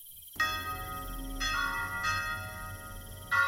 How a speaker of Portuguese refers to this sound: Foi aí que o sino da igreja da praça soou doze vezes.